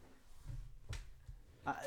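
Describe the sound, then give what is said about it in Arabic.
A chair creaks and knocks as someone settles onto it: a sharp wooden clunk, a few soft bumps, then a short high squeak near the end, all fairly quiet. “شفت كرسي قاعد عليه كمان يلا ده ها صوتك ده”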